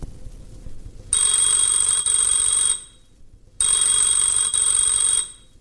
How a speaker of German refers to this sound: Telefon